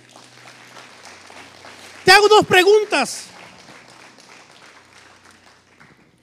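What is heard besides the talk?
audience applauding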